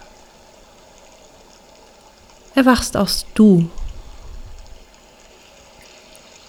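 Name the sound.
flowing stream water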